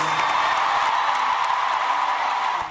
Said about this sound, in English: Please join me in a round of applause for 70 years of service.